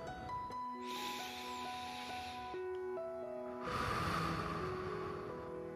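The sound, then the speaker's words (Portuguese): A long, slow deep breath drawn in and let out slowly during a guided meditation, soft airy hiss rising and falling, set against a gentle sustained musical drone with steady tones underneath. “Respire fundo.”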